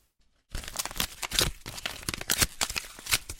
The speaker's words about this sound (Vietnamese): Thấy tủi thân nên cô đã xé tan tấm ảnh.